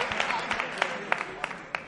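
A carnival audience applauds a chirigota group after its paso doble dedicated to Andalusia Day: a steady, dense patter of many hands clapping at moderate volume, with a few sharper, louder claps standing out every so often.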